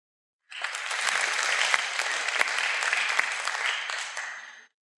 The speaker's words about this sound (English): Folks, give everyone a round of applause.